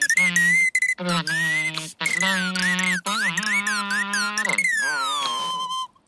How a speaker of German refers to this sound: Was ist denn das? Da sitzt ja der Vogel und singt. Ganz schön laut.